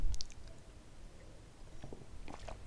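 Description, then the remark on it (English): Wet mouth sounds of someone sipping organic coffee: a few soft slurps and swallows spread across a few seconds, fairly quiet, with no talking. “As I sit on sip on some organic coffee”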